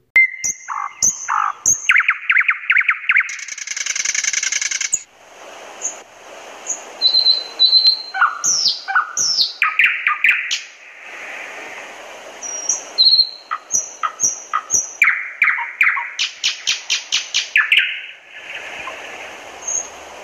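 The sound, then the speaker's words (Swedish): A nightingale sings close to a window, perched on a branch outside, loud: a varied run of rapid trills, sharp whistles and chattering bursts separated by brief pauses, continuing for the whole stretch with no voices. “Och det var så tyst, så tyst, så förfärande tyst då gör de detsamma tätt intill fönstret, den allra vackraste sång man kan tänka sig.”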